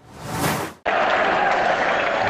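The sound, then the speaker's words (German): A dense, loud roar of a football stadium crowd at Manchester City just after the final whistle of a Champions League quarter-final first leg that FC Bayern lost 0-3: a swelling wash of cheering and applause cuts off abruptly, then resumes as a steady, continuous din with no clear voices. “Ja, du kannst es hören im Hintergrund.”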